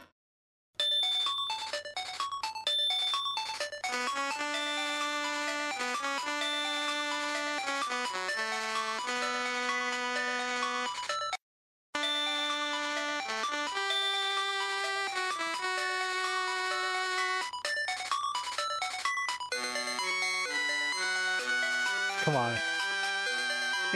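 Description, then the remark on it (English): Game Boy Color video game music from Zelda: Link's Awakening: a bright, buzzy chiptune melody of square-wave notes in a steady rhythm, with a brief break midway and a quick pitch-dropping sweep near the end. “That that song coming out of a Game Boy Color just blew me.”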